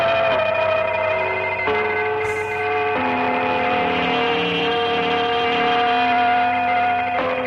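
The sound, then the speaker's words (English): A shortwave radio station broadcast of resonant gong tones, sustained and overlapping, with the pitch shifting every few seconds over a steady hiss of static. Loud and continuous, with no voices. “Gong Station. Here's a different one. Let's see what this one sounds like.”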